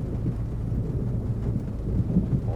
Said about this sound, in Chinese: 有听到下雨声，但也有听到打雷声嘛，就在开始下雨喽。